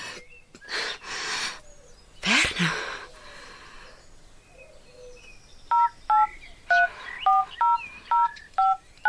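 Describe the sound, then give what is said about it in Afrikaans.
A quick string of about seven telephone keypad dialing tones as someone dials to call an ambulance, short two-pitched beeps in a steady rhythm, follows a few breathy gasps and sighs; no one speaks. “Ek moet 'n ambulans bel, maar hoe lank gaan dit vat?”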